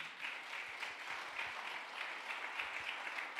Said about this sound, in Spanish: El otro aplauso fuerte.